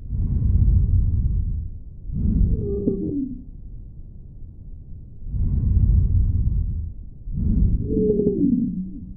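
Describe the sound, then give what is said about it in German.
Bronchial wheezing heard through a stethoscope on lung auscultation when airway obstruction predominates: muffled, rushing breaths over two respiratory cycles, each second phase carrying a high, musical whistling tone. No talking. “Bei der Auskultation hörst du ein bronchiales Giemen oder Brummen.”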